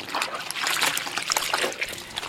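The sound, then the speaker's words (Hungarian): Water trickles and splashes in an uneven, continuous patter, with bright dribbling and small splatters as feet are washed at home, at a moderate level with no voices. “Ezután végre halaszthatatlanul leszette a lábait fedő burkokat, majd szégyenkezve hazaszaladt és állt lábat mosni.”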